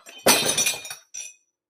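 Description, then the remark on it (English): A glass bowl breaks while being taken to the microwave, with a sudden loud crash, followed by scattered shattering and tinkling shards, then a brief final clatter of glass settling, leaving glass, marshmallows and butter everywhere. “There is glass and mellows and butter. It's everywhere.”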